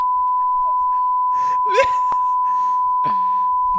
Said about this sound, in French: Fais un long bip